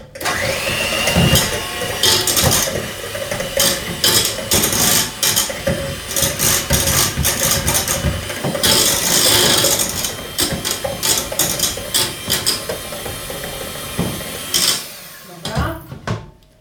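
Liquid ingredients plus salt and pepper being mixed in a pot, a steady whirring and clattering churn that runs nearly nonstop for the whole stretch before cutting off near the end.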